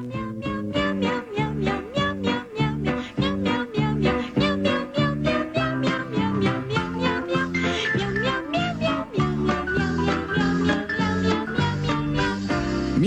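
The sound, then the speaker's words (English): A bouncy Meow Mix cat food commercial jingle in which voices sing a steady stream of rhythmic meows over instrumental backing, loud throughout, imitating cats in a repeating melody. “Meow Mix. Tastes so good, cats ask for it by name.”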